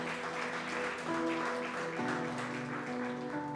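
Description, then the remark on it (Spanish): An audience applauds with steady, dense clapping throughout, while sustained keyboard chords play underneath and shift a few times. No one speaks. “Démosle este aplauso.”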